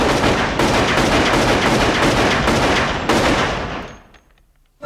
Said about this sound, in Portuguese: discussão foi interrompida bruscamente por uma série de violentos trondos. Algo tinha disparado vários tiros, talvez uma pistola.